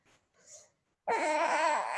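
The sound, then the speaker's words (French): An infant fusses with a couple of soft, breathy whimpers, then bursts into a loud, wavering wail that carries on. No one talks over it. “Oh mon petit chat, excuse-moi mon amour, tu veux boire encore oh.”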